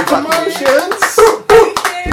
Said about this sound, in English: Wait, hey, that deserves a round of applause, no? Oh, thank you, thank you very much.